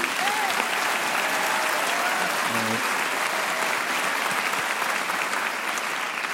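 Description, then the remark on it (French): A sustained round of audience applause for public hospital staff, dense and steady for several seconds, with many hands clapping at once and a faint voice or two rising briefly beneath it. “On peut les applaudir d'ailleurs, s'il vous plaît.”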